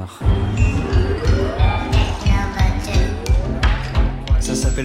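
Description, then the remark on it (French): A France Inter radio station jingle for the show Foule sentimentale, recorded at the Philharmonie de Paris, plays loud: a steady, punchy beat repeating about twice a second, with rising tonal lines and bright percussive accents layered over it. “Le jingle va se terminer.”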